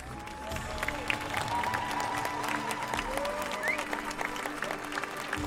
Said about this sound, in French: Alors attention s'il vous plaît, j'aimerais une nouvelle fois que vous leur fassiez un tonnerre d'applaudissements.